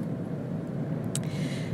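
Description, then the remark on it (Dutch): Steady low rumble of a car interior, a constant engine and road drone filling the space, with a brief faint click or rustle partway through and no talking. “Ondanks het feit dat ik in de auto zit.”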